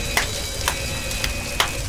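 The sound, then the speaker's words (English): Fire in a burning building crackles with a steady hiss, broken by four sharp, bright pops at irregular intervals. The popping stands out clearly against the constant crackle, and no one speaks. “Again with the popping, Mrs.”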